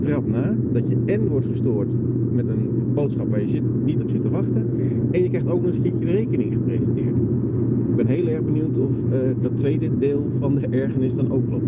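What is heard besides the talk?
car interior road noise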